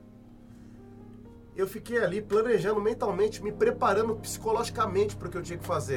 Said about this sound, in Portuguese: Desculpa o barulho do avião aí, eu, eu tô com a porta do estúdio aberta aqui, né, para dar uma refrescada.